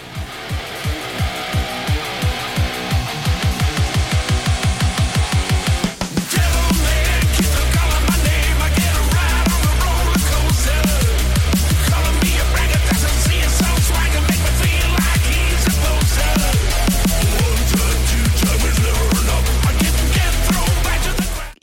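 A remixed metal song: it opens with low, quickening thumps building for several seconds, then bursts into a loud, dense wall of distorted sound with heavy bass and a steady driving beat.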